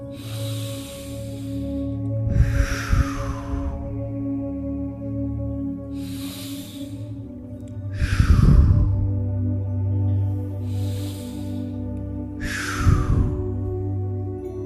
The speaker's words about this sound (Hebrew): קחו עכשיו ביחד איתי עוד שלוש נשימות עמוקות.